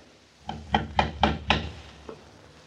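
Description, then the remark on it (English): A fisher boy from the village knocks five sharp times on a wooden door in a quick, even rhythm, followed by a fainter single tap, against a quiet background. “Someone's at the door”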